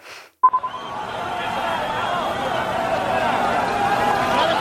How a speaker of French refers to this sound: Alors ce qu'on entend derrière, ce n'est pas une manifestation pour le droit des femmes en Iran. Ce sont des centaines d'hommes courant derrière le bus de Cristiano Ronaldo venu disputer un match de Ligue des champions asiatiques en Iran.